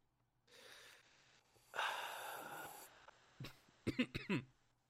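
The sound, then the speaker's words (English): A noisy, airy slurp of whiskey, first short and then longer and louder, followed by a quick series of sharp, sputtering coughs as someone chokes on it. No talking. “I tried slurping, but I uh, should not have tried slurping. That's a. Did you choke on your own your whiskey?”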